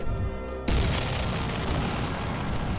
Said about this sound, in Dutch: In het kanaal bulderden de Engelse kanonnen onheilspellend in hun verrassingsaanvallen op de Nederlandse koopvaardijschepen en vissersboten.